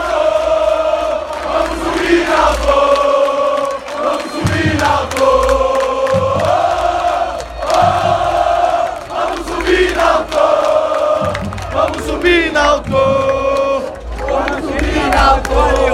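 A large crowd of Náutico football supporters in a stadium sings a chant in unison after their team's win over rival Santa Cruz, loud and sustained throughout, with rising and falling melodic phrases over a dense roar of many voices.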